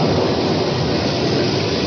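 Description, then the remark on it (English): A thunderstorm sound effect from a 1964 song recording, used with rain as a musical instrument: a steady, dense roar of rumbling noise that sounds somewhat muffled, holding at an even loudness throughout with no voices. “That's, that's a thunderstorm.”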